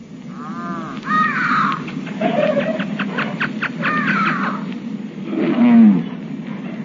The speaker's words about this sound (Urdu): خدا نے نو نو آخر اپنا ٹبر ٹور تے ہر قسم دے جانوراں دا جوڑا لے کے بیڑی وچ وڑ جا بیڑی وچ وڑن لگیا انہاں بڑا ہی شور مچایا